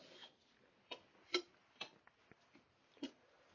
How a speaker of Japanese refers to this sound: はい、今、大根切り終わったけど、どうしようかな。もうちょっと大根入れるかな。もうちょっと入れよう。もうちょっと大根切って、もうちょっと入れます。